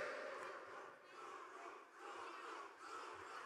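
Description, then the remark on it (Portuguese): A large crowd shouts and cheers loudly and continuously to decide by shouting who gets third place, a dense roar of many voices that swells and dips slightly in waves without pause. “Você se quiser terceiro vai ter que ganhar no grito, demorou?”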